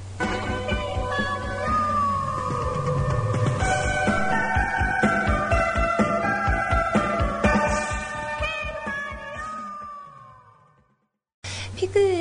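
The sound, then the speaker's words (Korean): An upbeat opening theme of the Mario cartoon plays, a bright melody over steady bass and drums with a sung vocal line, pausing briefly near the end before the music resumes. “마리오 오프닝 곡을 같이 들었는데 저는 솔직히 좀 되게 낯설어요.”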